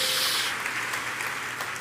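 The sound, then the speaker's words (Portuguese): An audience gives another round of applause to the Lord Jesus, many hands clapping together in steady, sustained, dense, continuous applause for a couple of seconds. “Dá aí outra salva de palmas ao nosso Senhor Jesus, dá outro glória a Deus, aleluia, glória a Deus.”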